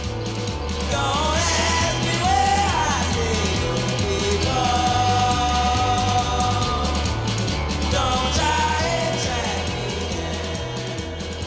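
A loud, full rock band plays steadily with driving drums and bass, while a wavering female voice sings sliding, drawn-out notes over the top.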